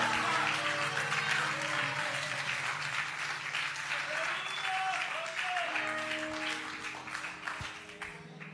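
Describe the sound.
Sustained audience applause, a dense steady clatter of many hands clapping for several seconds, with cheers and a voice or two faintly audible through it before it tapers off at the end.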